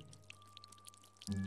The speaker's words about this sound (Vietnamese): Đó là tiếng vội nước âm ỉ Như ai đó mở van nước từ từ ra Ban đầu nước lợp đợp nhỏ từng giọt rồi sau đó rào rào như nước vỡ